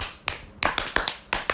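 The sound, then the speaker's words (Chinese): Several hands clap the Taiwanese 'love encouragement' (爱的鼓励) cheering pattern in a bright, crisp rhythm, a single clap followed by quick groups of sharp claps with short pauses. “来爱的鼓励起来”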